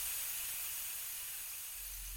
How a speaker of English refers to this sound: I can still hear the tinkling of broken glass, the steaming of the cracked radiator when the initial shock subsides and the freshly deployed airbag begins to deflate.